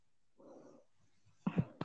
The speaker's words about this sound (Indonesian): Iya, Itu suara kucing ya, bukan ayam.